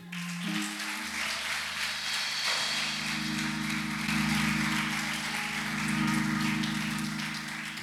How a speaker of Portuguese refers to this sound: Aplauda o Senhor, igreja.